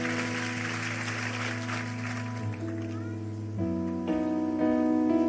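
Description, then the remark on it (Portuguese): An audience applauds in a dense wash of clapping that fades after a couple of seconds, while sustained keyboard or organ chords play underneath and shift to new harmonies as it ends. “Aplauda ele, vamos ficar em pé, vamos embora para casa.”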